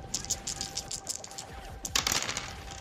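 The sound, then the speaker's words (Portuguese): Quiet metallic clicking of a gun being cocked: a run of small sharp clicks, then a louder rattling snap of the action near the end, with no one talking. “Você deu aquela engatilhada, eu dei o tiro, tiro explodiu a cabeça do cara.”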